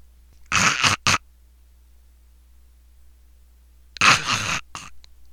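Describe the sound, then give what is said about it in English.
A person imitates snoring: two short, rasping, breathy bursts, each quickly cut off, separated by a long stretch of silence. Fairly loud, with no talking. “He would be sitting in the recliner and go, and then intermittently in between this this snoring sound that he made, he would just stop.”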